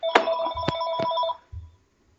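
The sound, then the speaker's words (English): A telephone rings for an incoming call, a bright electronic tone with sharp clicks and a steady high chime lasting over a second, then a brief low thump as it cuts off. “Hang on a second. I gotta answer this.”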